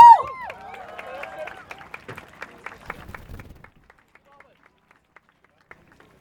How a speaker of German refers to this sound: Jetzt hören wir zu, was die Leute, die sich damit auskennen, zu sagen haben bitte einen großen Applaus für eine, für eine Aktivistin von der sozialistischen Jugend.